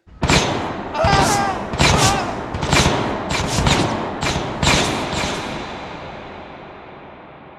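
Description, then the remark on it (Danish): A rapid, irregular volley of loud gunshots and heavy thuds in a battle, about eight sharp bursts over five seconds, each ringing out before a long echoing rumble fades away at the end. “Skuddene rammer en bror, der skriger.”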